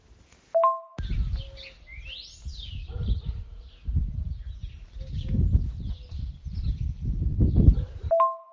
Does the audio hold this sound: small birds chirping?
yes